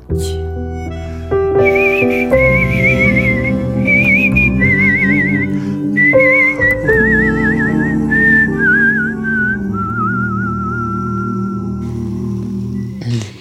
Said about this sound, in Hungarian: mellettem végig énekelt, és végig fütyülte a dalt.